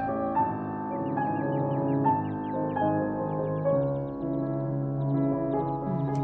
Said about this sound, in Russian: А музыка Шуберта. Слышите?